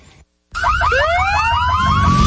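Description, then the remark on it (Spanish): After a brief silence, loud car horns blare in rapid, warbling repeated bursts over a steady rumble of traffic noise, with no one speaking. “Sabemos que las bocinas y los ruidos son molestosos.”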